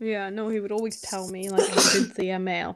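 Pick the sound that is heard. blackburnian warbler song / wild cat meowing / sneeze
sneeze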